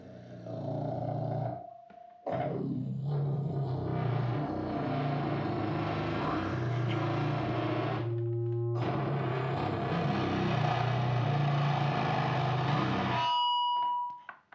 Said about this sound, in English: I, I do this a lot. I record growling and then I send it to distortion like this.